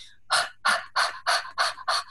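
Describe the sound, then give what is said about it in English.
Six quick, forceful panting exhalations in a steady, even rhythm, breathy, with no talking, done as a breathing exercise focusing on the exhalation. “panting breath again focusing on the exhalation because if you focus on the exhalation then you naturally inhale”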